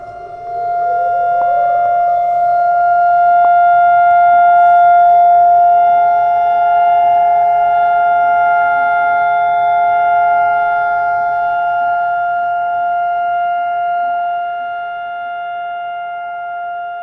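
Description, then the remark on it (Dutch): A memorial siren at a remembrance ceremony, recorded at the ceremony in an earlier year, winds up at the start and then holds a loud, steady, droning wail for the whole stretch, fading slightly near the end, with no voices. “Dan volgt de sirene.”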